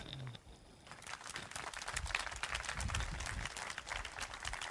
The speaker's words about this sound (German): Das ist euer Applaus.